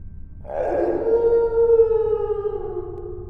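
A long, eerie wailing cry coming from a basement rises suddenly and holds, its pitch sliding slowly downward as it drags on, loud and mournful like a howl, with a low rumble beneath and no talking.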